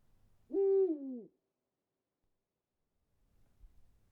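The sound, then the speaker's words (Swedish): A single loud owl hoot, drawn out for nearly a second with a slight rise and fall in pitch, followed by silence and a faint low rumble. “Och jag kan kanske förstå vad han, Thoreau, var ute efter när den greppade tag i den där stackars förvånade ugglan.”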